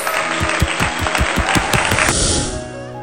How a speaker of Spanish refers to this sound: Aplausos.